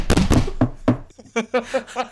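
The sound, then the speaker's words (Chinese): A voice imitates a head knocking on the floor in a kowtow: a burst of loud, punchy syllables, then five shorter rhythmic 'dong' sounds in steady succession. “可以哐哐磕头，咚咚咚。”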